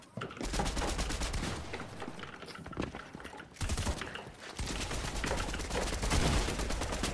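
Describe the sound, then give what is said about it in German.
Loud video game assault rifle fire, played on PlayStation, in long, rapid automatic bursts of sharp cracking shots, broken by a brief pause partway through, with no talking over it. “Welche Waffe habt ihr? Also Sturmgewehr.”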